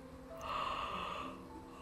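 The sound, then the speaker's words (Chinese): A person performs a little bear's sleepy yawn: one long, breathy, drawn-out vocal sound that swells in the middle and trails off softly, with no other talking. “哦，小熊困得打了一个哈欠。”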